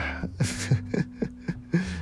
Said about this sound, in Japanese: なんかあくびすると本当なんかどうなんだろうあくびを他の人にこう聞かせながら配信する僕はあの他の人がねあくびをしながら、えしている配信を聞いたことがないから